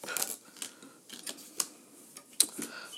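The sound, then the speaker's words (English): Tarot cards being shuffled and flipped, a quiet run of papery riffles and sharp little snaps spread unevenly over a few seconds, with no talking. “Shuffling, shuffling, shuffle to shuffle to shuffle. One, two, three, flip.”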